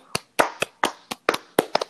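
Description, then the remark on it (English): About ten sharp hand claps into a microphone, in a loose, slightly uneven rhythm with a couple of quick doubles near the end, and no talking. “that, but I'm clapping for you through my mic.”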